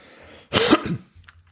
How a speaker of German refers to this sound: Ich will beim Husten immer das, das Mikro wegschieben.